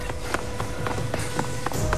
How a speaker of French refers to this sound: Dans le tunnel, j'entends des bruits de pas qui détalent, plus loin.